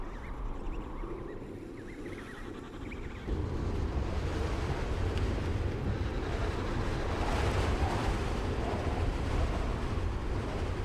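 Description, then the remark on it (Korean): A harsh snowstorm wind roars steadily, a dense rushing wash that grows noticeably louder a few seconds in and then holds, with no voices present. “가혹한 눈폭풍이 찾아왔습니다.”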